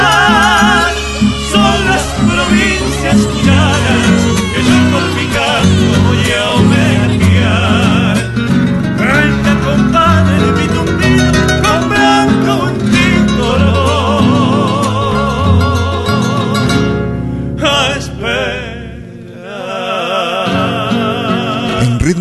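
A lively Argentine cueca folk song plays loud and full throughout, dense layered instruments with what sounds like singing, dipping briefly near the end before resuming.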